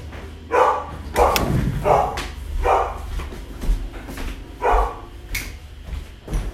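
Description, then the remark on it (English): A pet dog barks repeatedly in short, sharp bursts, about five or six barks spaced irregularly over several seconds, moderately loud, with some low thumping noise underneath. “Hang on one second. My dog is barking.”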